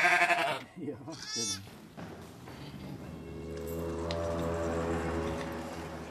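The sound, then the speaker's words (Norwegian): A newborn lamb, just delivered on a farm, gives a few short, wavering bleats in quick succession, then they stop and a steady, sustained musical tone takes over for the rest. “Der kommer lammet.”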